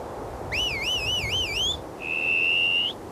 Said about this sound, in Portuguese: A certa altura ouviram assobios.